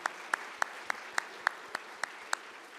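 An audience applauds a guest speaker at the end of his talk, a steady wash of clapping with one sharp, evenly spaced clap ringing out about three times a second above it. No one speaks.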